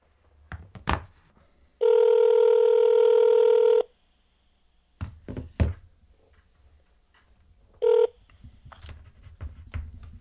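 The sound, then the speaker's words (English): A landline telephone gives a loud, steady electronic ring for about two seconds, then repeats briefly, with sharp clicks and handling knocks from a handset between the rings. No one speaks. “End of message. Landline.”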